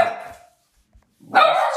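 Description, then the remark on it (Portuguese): A dog barks as the neighbours arrive: a sharp bark at the start, a short pause, then a louder, longer bark near the end. No one speaks. “A Sasha Joanita tem sempre a mania de ladrar quando os vizinhos chegam”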